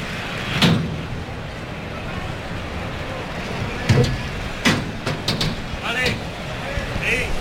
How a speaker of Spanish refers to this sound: Vamos a irnos a esos sonidos de la, de la puerta de Toriles.